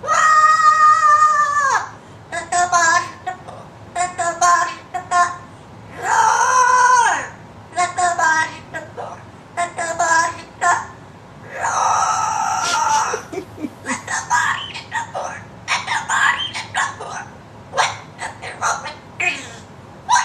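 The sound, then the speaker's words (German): A parrot squawks out rock song lyrics in a shrill, strained voice in a 2010 viral video, delivering loud, sung phrases in short bursts with brief pauses between them. “ist ein Video viral gegangen, wie ein Papagei die Textzeilen von … singt”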